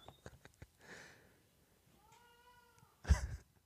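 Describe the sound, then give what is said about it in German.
A male cat lets out a drawn-out, wavering meow amid soft clicks and rustling as he humps a toy fish, taken from a drawer, across a living room, followed by a sudden loud thump. No one speaks. “Er könnte das Futter leer machen oder er angelt sich aus der Schublade seinen Fisch und rammelt den einmal quer durchs Wohnzimmer.”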